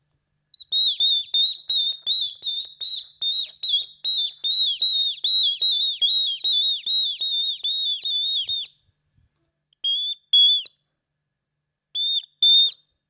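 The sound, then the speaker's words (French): A person whistles an imitation of a tit's song: a fast run of about twenty bright, high, evenly repeated notes, then a pause and two short pairs of similar whistled notes. No talking. “Et là, c'était la mésange.”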